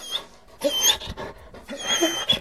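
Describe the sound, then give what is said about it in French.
A small dog gives a few soft, timid yaps and whimpers with panting breaths between them, fairly quiet, in two short bursts with no talking. “nous osons un timide jappement.”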